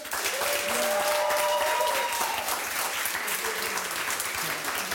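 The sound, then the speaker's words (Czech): Steady applause from an audience clapping to vote, dense and continuous for the whole stretch, with faint voices or whistle-like tones drifting above the clapping early on. “To je jak když tleská ten mrtvej žlalov,”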